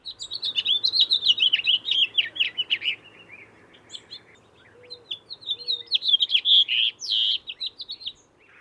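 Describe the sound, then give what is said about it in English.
A house finch sings two long, rambling, flute-like warbled phrases separated by a short pause. The song is bright and clear, with no voices present. “They have a beautiful long flute like song that sounds like this.”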